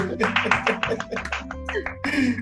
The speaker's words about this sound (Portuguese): Uma salva de palmas